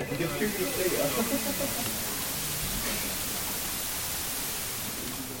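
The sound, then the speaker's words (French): Steady white noise hisses evenly across the whole stretch, a flat, constant wash of static at moderate volume, with a faint murmur of voice underneath near the start. “je connais bien le son du bruit blanc, je trouve ça... Euh, c'est pas très joli à entendre, c'est monotone”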